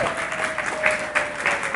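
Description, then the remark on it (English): An audience claps steadily for a couple of seconds to cheer on a woman, a dense, even patter of many hands with small swells, accompanied by a faint, steady high tone held throughout. “Okay, let's all let's let's cheer her on, you know, because”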